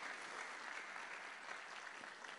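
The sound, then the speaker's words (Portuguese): A church audience claps steadily for a visiting pastor couple, a dense, continuous patter of many hands at an even volume with no pauses, and no voices stand out above it. “eu quero que vocês deem um salve de palmas para os nossos queridos”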